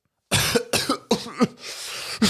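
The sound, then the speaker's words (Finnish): A fit of harsh coughing caused by a musty cloud of smoke from a puffball mushroom under moss: four or five rough bursts in quick succession, ending with a raspy, breathy stretch before one last cough. “… alkaa yskiä.”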